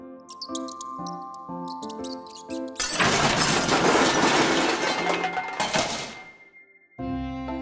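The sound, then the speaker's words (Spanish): Mice squeak in a grocer's storeroom in quick, high-pitched bursts, then a loud, noisy clatter like something breaking takes over for a few seconds before the squeaking returns at the end. No one speaks. “Había tenido cuantiosas pérdidas y los ratones le seguían causando algunos daños.”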